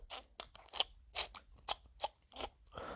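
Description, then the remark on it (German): A voice imitates the squelch of walking in shoes soaked with snow: about nine short, wet, crackly bursts in an uneven stepping rhythm, fairly loud, with no talking over them. “komische Geräusch halt die ganze Zeit beim Laufen.”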